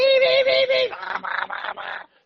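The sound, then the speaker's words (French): Dial-up modem handshake as the modem tests the line quality between the home and the telephone exchange: a steady, buzzy tone pulsing a few times, then a run of rhythmic harsh static bursts before it cuts off. Loud, with no talking. “les fameux modems qui, quand ils se connectaient, faisaient”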